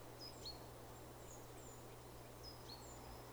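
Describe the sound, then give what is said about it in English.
Faint, thin bird chirps and short whistled calls come from far off in a forest, scattered in small clusters over a steady low hum of background noise. “But you can hear birds singing in the distance”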